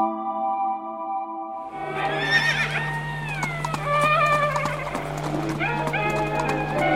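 Horse hooves clip-clop in a steady rhythm while a horse whinnies loudly several times, after a brief opening of sustained tonal sound.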